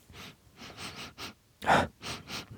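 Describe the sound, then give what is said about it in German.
Several short nasal sniffs in quick bursts, one stronger inhale in the middle, as someone smells a freshly uncorked bottle of liquor held right under the nose, smelling of alcohol with a fruity note. No talking. “Es riecht nach, riecht nach Alkohol mit einer fruchtigen Note.”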